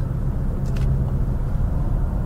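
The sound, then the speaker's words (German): A steady, loud low-pitched car engine and road rumble from a BMW 520d diesel saloon driving through curves in sport mode, with a brief faint higher hiss partway through and no voices. “BMW 520d: Die Verbrenner-Basis des i5”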